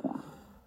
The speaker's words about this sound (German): Ja, oh, hat man, ich, das hat man, glaube ich, gehört. Das war mein Magen.